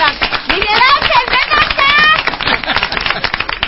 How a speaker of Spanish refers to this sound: Un aplauso, un aplauso para el